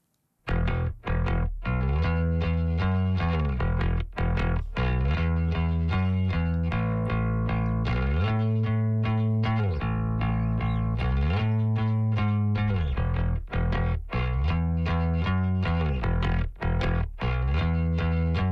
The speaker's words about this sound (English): a new vintage amp cabinet, 500D cabinet. And so it's just … noodling on bass when we never get to hear that. So I thought it would be cool to listen to a little bit of that of uh of … uh slap at a bass. Slap it at a bass.